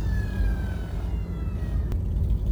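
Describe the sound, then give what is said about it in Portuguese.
A siren wails over heavy low traffic rumble, its steady tone sliding slowly downward as the vehicle passes by outside. “Acho que vocês ouviram a sirene aí, acho que é dos lazarentos motoqueiros aí, aquelas motoconas de três.”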